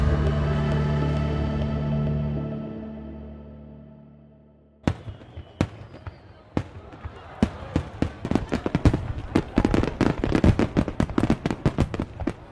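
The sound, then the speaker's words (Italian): After a sustained ringing tone fades out, a barrage of Chinese New Year fireworks and firecrackers erupts: sharp, loud bangs and pops that grow denser and faster into continuous crackling. “Questi che sentite sono i fuochi d'artificio tipici di un capodanno cinese.”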